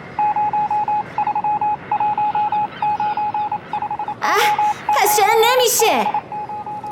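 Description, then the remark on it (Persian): A radio dial is turned through steady hissing static while searching for the right channel, with a run of short, evenly spaced beeps and then warbling, sweeping whistles as stations drift in and out, fairly loud. “بعد جاکوب رادیو رو روشن میکرد و اونقدر دکمه رادیو رو میچرخوند تا بالاخره روی کانال درست قرار بگیره اما پارازیتو اینقدر زیاد بود که جاکوب و عصبی میکرد”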